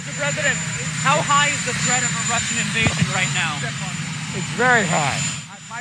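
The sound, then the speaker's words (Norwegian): A steady, loud helicopter engine and rotor drone fills the background throughout while a person speaks over it, the mechanical roar staying constant beneath the voice, as US President Joe Biden heads into his helicopter on a Thursday. “På vei inn i helikopteret sitt torsdag sa USAs president Joe Biden at det står om dager.”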